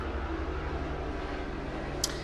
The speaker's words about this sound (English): It's a helicopter.